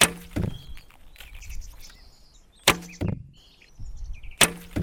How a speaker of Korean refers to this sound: 요나단은 작은 아이 하나를 데리고 약속 장소로 갑니다. 그리고는 활을 쏘고는 아이에게 가서 찾아오라고 하지요.